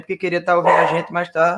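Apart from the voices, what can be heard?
dog barking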